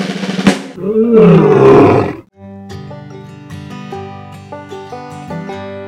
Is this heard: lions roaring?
yes